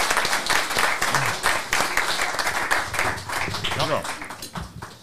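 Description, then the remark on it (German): A crowd applauds steadily for about five seconds, a dense, even patter of many hands clapping, with a few voices calling out and talking underneath. “Einen Applaus nochmal an Jawohl. dich.”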